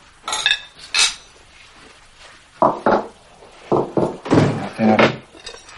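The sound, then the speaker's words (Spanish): Cutlery scrapes and clinks against a plate in short, uneven bursts as a man cuts up a steak for a child in a living room, with occasional duller knocks from dishes. “Tony entra en el salón mientras Román le trocea el filete al niño.”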